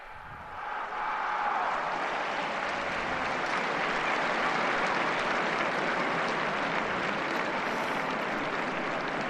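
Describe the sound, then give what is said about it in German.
A large crowd of faithful gathered in St. Peter's Square applauds at the close of the Angelus with Pope Francis, a dense, steady roar of clapping that swells in over the first second and holds loud and even throughout. “Mit dem Applaus der versammelten Gläubigen auf dem Petersplatz geht unsere Live-Übertragung des Angelus mit Papst Franziskus zu Ende.”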